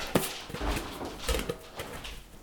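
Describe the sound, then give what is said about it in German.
A dishwasher door pops open with a short click and a dull thud, followed by a few softer clunks and knocks spread over a couple of seconds, with no talking. “Ah, jetzt ist meine äh, Spülmaschine gerade aufgegangen.”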